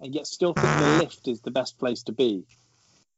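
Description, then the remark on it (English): A mobile phone goes off with a loud, raspy half-second buzz in the middle of a man's speech, followed by a faint low hum under his continuing talk. “oh, sorry, my, that was my phone going off.”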